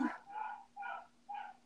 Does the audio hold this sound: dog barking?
yes